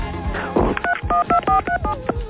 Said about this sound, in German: Der programmiert in DTMF.